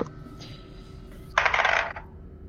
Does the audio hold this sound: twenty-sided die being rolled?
yes